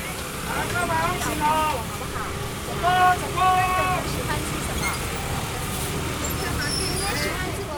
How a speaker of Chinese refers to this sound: 在台湾各个地方的菜市场，大概都是会这样子，像你现在听到的这个声音，呃，人和摩托车争道，然后呢， 摩托车穿越人群，人也要穿越车阵。